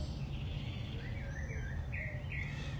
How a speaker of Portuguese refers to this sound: Vocês vão ouvir os passarinhos cantar aqui que porta aqui do consultório está aberta. Então a gente vai fazer a live aqui ao som ao som dos passarinhos aqui que ficam cantando aqui no, no quintal.